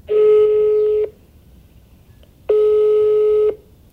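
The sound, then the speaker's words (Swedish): A telephone ringback tone sounds twice while calling a person over 60. Each steady buzzing beep lasts about a second, with a longer silent pause between them, clear as if through a handset. “Jag ringer upp en 60-plussare och kollar.”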